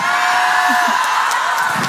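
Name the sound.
audience cheering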